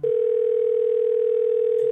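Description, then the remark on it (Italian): A steady, continuous telephone dial tone hums at constant loudness for the full two seconds, with no speech or other sounds over it. “Ed ora proseguiamo con la telefonata.”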